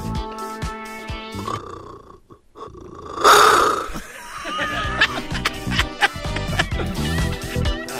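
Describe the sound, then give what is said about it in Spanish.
A child imitates a lion's roar with one short, raspy, growling burst in the middle, louder than the steady music and sounds playing before and after it. “¿Cómo le hace el león, diablito?”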